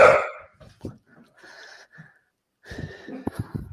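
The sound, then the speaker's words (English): A pet dog barks and yelps in the background in a few separate bursts, with a sharp one at the start and a rougher, whiny run near the end, moderately quiet. “My mind's drained because of the, my dog's barking in the background.”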